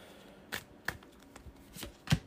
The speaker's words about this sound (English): Let me get out my uh, big old box of uh, basic starting weaknesses. I have all of them, so I'm just going to shuffle these all up.